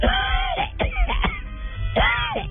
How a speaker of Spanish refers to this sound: Así, cuando me empezó esta tos, 28 años. Ay, pues, 28 años. Me dio una pulmonía.